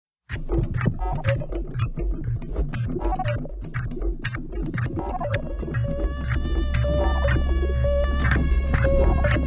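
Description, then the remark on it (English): A grungy, heavily distorted rock cover of a spy film theme plays loud, with buzzing guitars and pounding drums, then thickening into a sustained droning wall of sound. “I'm never going to not put a new interpretation of Bond theme on the list or on our podcast”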